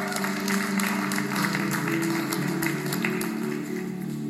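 A church audience applauds a scripture reader steadily for a few seconds, a dense wash of many hands clapping at an even loudness, with a low steady hum sitting underneath.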